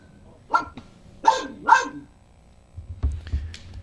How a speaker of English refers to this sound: My dog agrees.